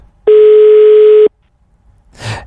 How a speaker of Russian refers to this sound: Не берет трубку